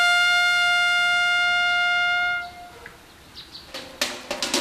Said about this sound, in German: Aus diesem Zapfenstreich wurde mit der Zeit ein akustisches Signal speziell für das Militär. Das konnte mit einem Horn sein,